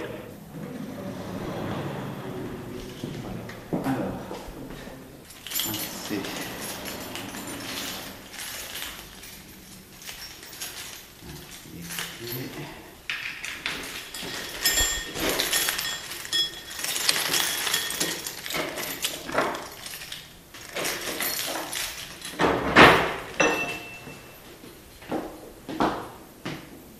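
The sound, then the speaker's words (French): Keys jingle and scrape in a single keyhole, two keys inserted one after the other in a set order, followed by a run of metallic clicks and heavy clunks as a massive vault door (the small one weighs 800 kg, the large one a tonne) is unlocked and swung open, with no talking. “Il y a un seul trou de serrure, mais il y a deux clés. On doit introduire dans un ordre bien précis deux clés successives.”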